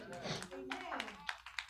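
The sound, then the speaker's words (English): A group claps for the Lord Jesus during a worship service in a fairly regular rhythm, sharp bursts landing roughly every third of a second, with voices carrying underneath the applause. “Clap for the Lord Jesus.”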